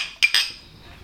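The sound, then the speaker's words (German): Two quick, bright clinks of a glass holding a drink as it is picked up, one right after the other, each leaving a high ringing tone that fades slowly. No one speaks. “Also, grab the glass.”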